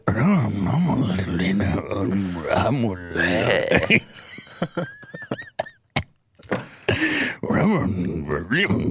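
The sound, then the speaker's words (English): A voice mimics a car engine with revving, growling hums that rise and fall, followed by a few high whistly tones and sharp clicks, all loud. “Are you making car noises right now?”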